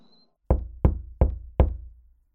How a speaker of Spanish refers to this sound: Ve, toca vos la puerta.